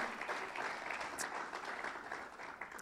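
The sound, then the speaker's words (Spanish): A church audience applauds steadily, adults welcoming the young people who have arrived, a dense wash of many hands clapping at an even level for the whole stretch, with no voices standing out. “Y adultos, denle un fuerte aplauso a esa juventud que ha llegado.”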